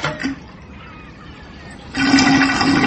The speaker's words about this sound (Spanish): Y ahí está, el mar está empezando a vaciarse, compañeros. el, agua rápidamente va eh, vaciándose y desplazándose.